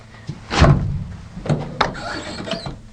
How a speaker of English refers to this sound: So that squeaky noise was actually sucking the door in to make an electrical seal.